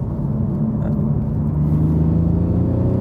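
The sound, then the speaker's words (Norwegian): A sports car with a 340-horsepower, 500 Nm BMW engine hums steadily from inside the moving car, a continuous low rumble with a faint airy hiss above it and no voices. “hører du at den hveser litt.”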